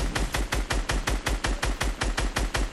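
sound effect, video game gunfire

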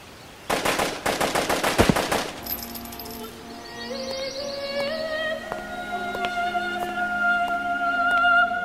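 sound effect, machine gun fire

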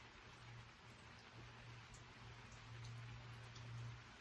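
nature, rain falling

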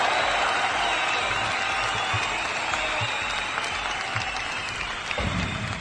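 crowd, audience applause

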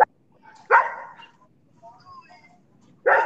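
animal, dogs barking

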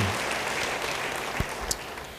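crowd, audience applause

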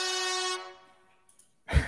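sound effect, horn blast sound effect

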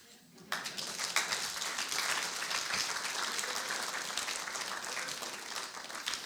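crowd, audience clapping

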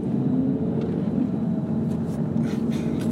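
vehicle, car driving

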